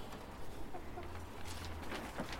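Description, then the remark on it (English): Several hens cluck softly and intermittently, their short murmuring calls scattered over a steady rustling farmyard background with no one talking. “First, though, let me take you out to meet the girls.”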